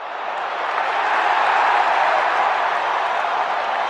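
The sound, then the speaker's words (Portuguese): A big stadium crowd roars and cheers in a dense, continuous wash of noise, building slightly then holding steady and loud for the whole few seconds, with no single voice standing out. “a ausência do público, a vibração dos torcedores, o abraço em um desconhecido parece dar vazada à felicidade.”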